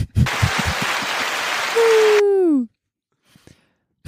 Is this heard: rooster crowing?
no